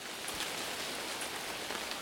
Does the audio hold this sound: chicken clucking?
no